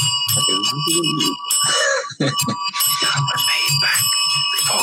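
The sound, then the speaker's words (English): A flashback sound effect for going back in time: bright, shimmering bells ring continuously for about five seconds, loud, a dreamy chiming wash layered over a low, pulsing hum underneath. “How do we go back in time, boys? Let's bring the bells are going back in time.”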